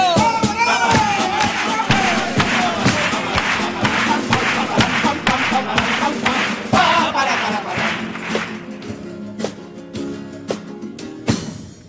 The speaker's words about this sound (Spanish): Al día siguiente yo no me pierdo el concierto de Año Nuevo una buena cerveza es lo mejor y me pongo ya a aplaudir. Así que acompáñenme.